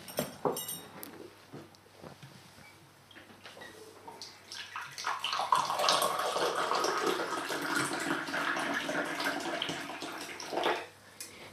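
Close-up sound of tea being poured from a teapot into a cup: a few light clinks, then a steady, splashing stream of liquid for several seconds that stops abruptly.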